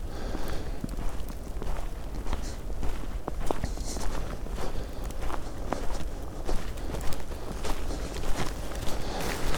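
Steady footsteps of a person walking on along a path while covered in snow, at a regular pace, each step a crisp thud repeating about twice per second, fairly loud over a faint background hum, with no one speaking.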